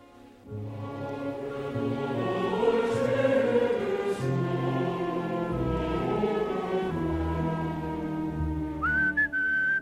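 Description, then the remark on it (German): A popular tune from the opera Rigoletto is whistled steadily over a rich, sustained instrumental backing for nearly ten seconds, the whistled line rising and falling above the full, loud accompaniment. “Ein hintersinniges Pfeifen auf den Lippen. Ein Gassenhauer aus Rigoletto, frei nach Victor Hugos Le Roi Samus, als Anspielung auf einen lüsternen Potentaten.”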